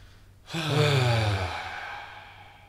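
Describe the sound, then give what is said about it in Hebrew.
A single deep breath, taken as a shared breath, released as a long, voiced sigh, fairly loud, fading out over about a second into quiet. No one speaks. “בואו ניקח נשימה ביחד.”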